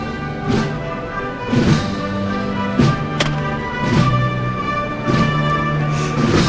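A marching band plays a slow processional march, with sustained brass chords over heavy drum strikes landing at a steady, measured pace, full-sounding with no talking, accompanying a religious brotherhood's procession with its liturgical cortege and ten acolytes.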